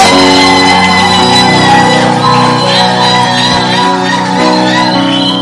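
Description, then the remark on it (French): A large crowd at a church worship service shouts and whoops with joy, many voices overlapping in a loud, sustained roar of cheering that fills the space from start to finish. “Tonight, let's clapping. Shout. Acclamez, poussez des cris de joie ce soir.”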